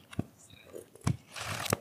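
Plastic wrapping being torn and crinkled as a book is taken out of its packaging: three sharp, crackling bursts, with a stretch of dry, hissy rustling between the second and third.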